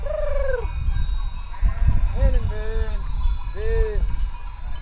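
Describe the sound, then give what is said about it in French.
A flock of sheep bleats repeatedly while bells clank and jangle among them, with a steady low rumble of the moving herd, as a shepherd with a stick and his dogs manoeuvres the flock. “Il faut le voir Arnaud, bâton en main, entouré de ses chiens, essayer de manœuvrer son troupeau”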